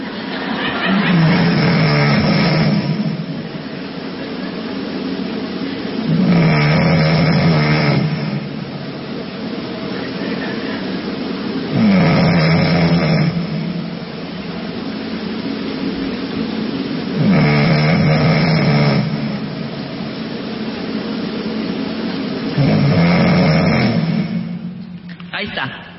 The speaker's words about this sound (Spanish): Bueno, aquí vemos también uno muy, muy intenso y lo que llama la atención es que las personas que enviaron sus ronquidos son muy jóvenes.